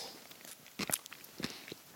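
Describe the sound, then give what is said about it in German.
Crunchy chewing of a mild whole-seed mustard containing coriander seeds, tasted plain off the back of a hand, with a couple of crisp, brittle bursts and a few softer crackles between them, heard alone with no talking. “Oh, die, die knuspert, ja wirklich.”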